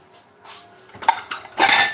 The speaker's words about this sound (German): bin hier gerade am Geschirr abtrocknen, wenn es hier klappern sollte.